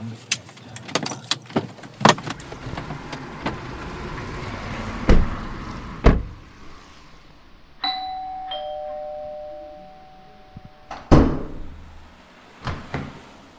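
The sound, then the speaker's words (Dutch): Rattling and clicking handling noises give way to a two-tone doorbell chime ringing out, followed by a door being opened with a sharp clunk and some shuffling. “De deur gaat open, maar de ontmoeting verloopt wat stroef.”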